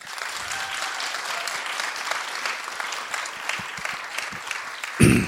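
Steady applause from a live show audience, many hands clapping densely and continuously at moderate loudness, ending with a louder burst at the close; clapping in answer to a question from the stage.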